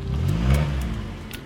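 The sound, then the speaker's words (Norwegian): A car being parked at full speed: the engine revs briefly with a low, rising hum, then eases off, a quick burst of driving sound with a few faint clicks above it and no voices. “En mann parkerer i full fart og løper inn døren.”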